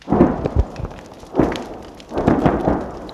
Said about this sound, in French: L'obus russe vient de frapper, la maison brûle en crépitant, la position ukrainienne ratée juste derrière, elle riposte.